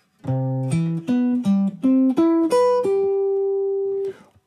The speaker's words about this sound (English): But let's take, for example, instead of 1, 3, 5, 7, let's take 1, 3, 7, 5 and see how that sounds like.